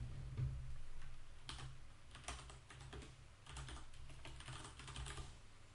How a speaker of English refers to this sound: The fact that the mic picks up the like the typing. I have a mechanical keyboard. It's fucking super loud.